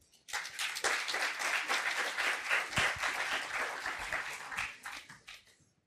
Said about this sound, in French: Et maintenant, je vous demande d'accueillir nos invités euh, avec un tonnerre d'applaudissements.